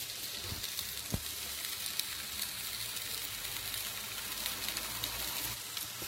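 Steady crackling sizzle of food on a hot grill that is now firing up fully, a dense hiss with scattered pops running continuously, with no one talking.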